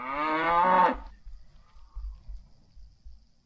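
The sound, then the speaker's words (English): A cow sound effect is played: one loud, drawn-out moo lasting about a second, then it falls quiet apart from faint, low rumbling thumps in the background. “Uh, that you played a cow sound.”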